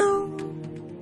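A single cat meow, a steady tonal cry that starts loud and fades within a fraction of a second, heard through a window with light rain falling outside, followed by faint scattered soft patter with no talking.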